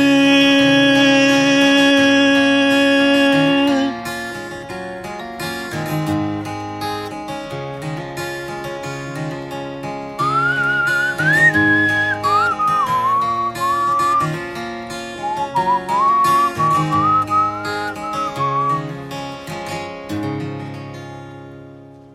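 A song's closing stretch plays out without vocals, sustained instrumental tones over a steady bass rhythm, with a bright whistle-like melody weaving through the middle before the music fades at the end.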